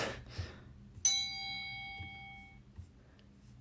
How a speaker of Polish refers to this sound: I czas na dzwoneczek.